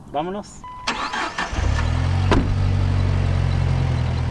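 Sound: car engine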